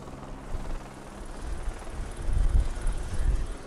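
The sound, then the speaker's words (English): A helicopter's deep, throbbing rotor rumble passes overhead as helicopters escort a departure from the Democratic National Convention arena, swelling louder toward the end, mixed with gusty wind buffeting the microphone and a broad wash of outdoor noise. “We're leaving the Democratic National Convention now at the arena. Escorted by choppers.”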